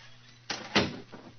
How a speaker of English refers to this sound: Please close the door behind us.